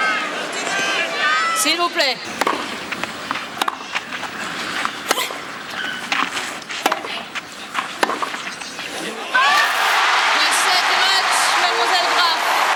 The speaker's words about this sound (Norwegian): Og Her er det altså en feil fra Hingis, og likevel så jubler publikum som gale når Steffi Graff vinner den kampen.